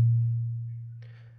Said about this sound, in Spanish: El pitch es una manera de expresar qué tan alta o baja es la frecuencia de un sonido. Una frecuencia alta o de un pitch agudo suena así y una frecuencia baja o de un pitch grave suena así.